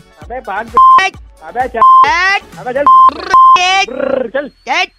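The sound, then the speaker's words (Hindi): Four short, steady electronic beeps at a single pitch come through a phone line, spaced unevenly among loud, animated voices that talk over and around them. “मैंने तो बोला भी नहीं ना डू डू डू कर रहा है”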